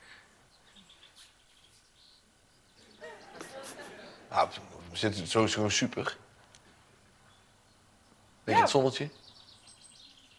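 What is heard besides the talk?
birds chirping outdoors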